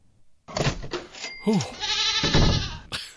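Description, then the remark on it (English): A goat bleats loudly, a couple of wavering, nasal cries in quick succession, with a longer trembling bleat near the end and no talking. “that sound means I've hidden the cash behind one of three doors, and goats behind the other two.”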